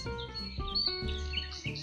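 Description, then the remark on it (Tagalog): Birds perched in trees chirp and sing in quick, bright bursts over a steady, soft musical backdrop, moderately loud and continuous through the short stretch, with no voices. “Nakikita ang mga ibon na kadapo sa puno na nag-aawitan.”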